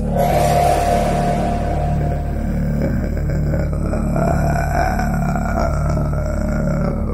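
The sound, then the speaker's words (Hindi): A deep, menacing growl rumbles continuously and loudly, with slow pulsing swells in its low, guttural tone and no speech over it; the growling voice of a non-human woman with big eyes, long open hair and bowed head, seen in the dark in a dream. “वो औरत अंधेरे में भी उसे साफ साफ दिखाई दे रही थी आंखें बड़ी बड़ी खुले लंबे बाल और झुका हुआ सर और एक गुर्राती हुई आवाज”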